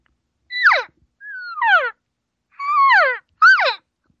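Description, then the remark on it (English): A voice imitates a normal cow's moo with four short, loud calls, each sliding downward in pitch, spaced by brief pauses, with no other sounds. “Whereas a normal cow sound”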